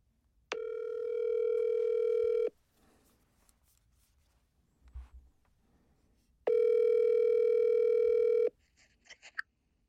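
An outgoing call to a Moroccan phone number rings through the earpiece: two long, steady buzzing ringback tones about four seconds apart, with near silence and a few faint clicks in between.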